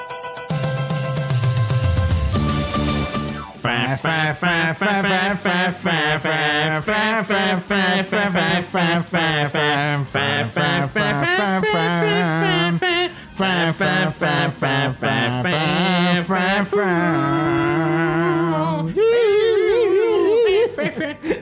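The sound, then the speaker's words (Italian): A loud musical interlude plays: a held chord opens, then a steady beat of sharp percussive hits carries a wavering melodic lead line through to the end, with no talking. “E come ogni puntata, prima di addentrarci più in questo primo finale di stagione, ascoltiamo un po' di musica.”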